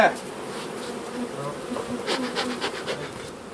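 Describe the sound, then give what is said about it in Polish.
Non-aggressive honeybees buzz steadily around an open hive, a dense, continuous hum with individual bees zipping past now and then, rising and falling in loudness without any talking. “Może pszczoła urządzić, mam teraz, ale agresywne nie są.”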